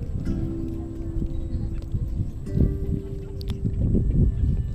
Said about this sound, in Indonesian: Tahu nggak sih, udara sore ini seger banget ya. Ada suara burung-burung dendang air laut